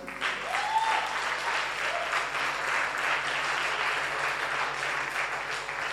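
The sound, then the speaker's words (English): An audience at a church service claps steadily for several seconds, a dense roomful of hand claps blending into a sustained, reverberant wash of applause, with faint voices underneath. “Please clap for them.”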